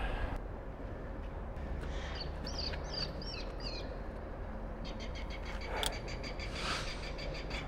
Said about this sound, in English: That's what the bird sounds. okay, those aren't, I don't think those are actual birds. Really? I think those are recordings. no. Why? Someone told me that they'll have recordings of birds to keep other birds away.